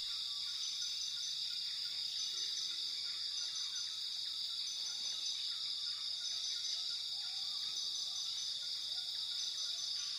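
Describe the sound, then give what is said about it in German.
A steady, dense drone of high-pitched insect and cricket chirring fills the scene, with faint scattered bird calls underneath, forming a continuous rainforest ambience without any voices. “In der Einschlafmeditation hörst du Geräusche aus dem Regenwald”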